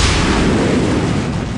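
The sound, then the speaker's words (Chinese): A landmine explosion: rolling landmines, their fuses lit, blast beneath the Liao army at Dingzhou, a loud, deep blast whose heavy rumble roars steadily across the whole moment with no letup, crackling noise spread over low and high tones, and no voices. “然而，就在辽军上下都觉得这第一战胜券在握的时候，沈世礼下令点燃了滚地雷的引信。”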